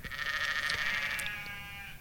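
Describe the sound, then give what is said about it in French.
A sheep bleats in one long, wavering call lasting about two seconds, fairly faint, about a hundred metres away near the Château de Beauvorde shrouded in morning mist, with no voices over it. “Les moutons belles à une centaine de mètres.”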